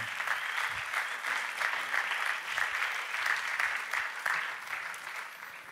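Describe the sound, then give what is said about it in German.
Steady audience applause welcoming a guest onto the stage, a dense wash of many hands clapping at an even level for several seconds, with no voices heard over it. “komm doch zu mir auf die Bühne, lassen sie mit einem Applaus willkommen heißen.”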